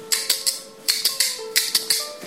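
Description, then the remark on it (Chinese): Bamboo kuaiban clappers demonstrate the basic single-point (单点) rhythm: about ten crisp, bright wooden clacks in loose groups of three, sounding alone over a faint steady hum. “快板的基本打法呢？ 我们从左右手分开来讲。左手原则上拿小板，右手原则上拿大板。”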